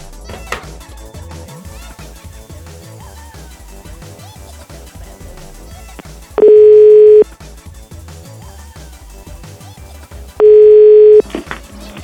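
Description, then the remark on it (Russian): A telephone line rings back with two loud, steady tones, each lasting under a second and spaced about four seconds apart, over continuous background music. “Сейчас позвоню, тем более, что у него простой номер там”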